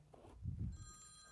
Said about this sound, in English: That's my phone. Hang on a second. Just make sure it's not my wife.